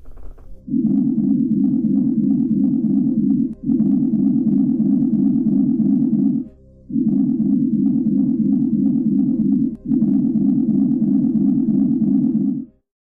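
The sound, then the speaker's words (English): A sonified Rossby whistle ocean signal: a low, steady droning hum that plays in four long sustained stretches with brief gaps between them, with faint higher overtones and no voices. “So we have a signal that comes and goes and I have the sound so that I can play that for you, and you can actually tell me what you think of the Rossby whistle.”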